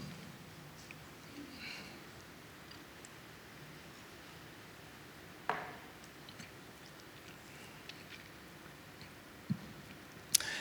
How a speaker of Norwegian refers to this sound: Jeg skal ta litt av det vannet.